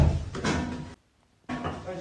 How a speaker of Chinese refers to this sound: 大白呢，又像流氓一样开始踹门，要把人拽出来。